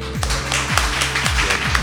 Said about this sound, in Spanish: Y quien escucha esto dirá, ¿cómo que en Quinótico tienen público? Bueno, se lo tenemos que demostrar, ¿no? Yo creo que un aplauso puede demostrar que aquí hay gente.